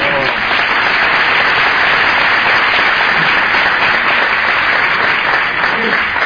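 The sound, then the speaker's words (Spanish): Sustained audience applause fills the whole stretch, a dense, steady wash of many hands clapping at a constant loud level with no pauses. “¿Qué saben ustedes que se, aplauso? ¿Los 88 años o adiós?”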